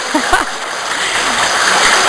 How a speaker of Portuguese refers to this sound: Aí, até palmas hoje, viu?